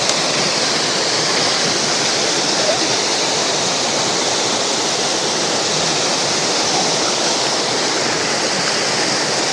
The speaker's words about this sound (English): Here's a neat waterfall. A lot of rocks in the stream. It's very easy to get across.